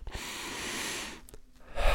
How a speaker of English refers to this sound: Take a deep breath